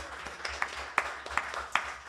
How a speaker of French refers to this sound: Ah ouais, un bon main d'applaudissement.